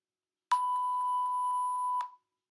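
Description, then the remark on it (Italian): A single steady electronic answering machine beep, a clear pure tone held for about a second and a half, loud, alone in silence, signaling the start of recording a message. “risponde la segreteria telefonica”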